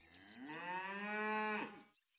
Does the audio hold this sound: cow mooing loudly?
yes